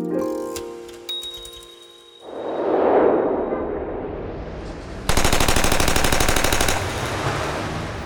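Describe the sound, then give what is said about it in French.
A loud, rapid burst of machine-gun fire rattles for about two seconds in a warehouse at 2122 North Clark Street, Chicago, on 14 February 1929 at 10:30, preceded by a swelling whoosh and a brief musical passage, with no voices. “à la même heure à Chicago, des détonations se font entendre dans l'entrepôt du 2122 North Clark Street.”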